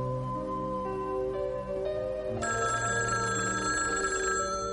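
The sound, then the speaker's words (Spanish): A telephone bell rings steadily and fairly loud, its bright metallic tone sounding alone over a dense musical background, with no voices present. “Va hacia el teléfono.”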